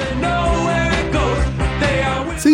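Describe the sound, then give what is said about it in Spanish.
A one-hit-wonder pop song plays in the background on its own at a steady, fairly loud level, with a pulsing low beat under layered sustained instruments and no talking over it. “salvo por este One Hit Wonder que estamos escuchando de fondo”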